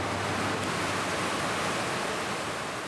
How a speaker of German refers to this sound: Hier ist es so laut, dass man sein eigenes Wort kaum versteht. Die Webstühle arbeiten so schnell, dass das Auge gar nicht folgen kann.